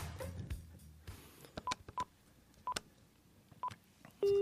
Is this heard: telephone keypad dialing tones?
yes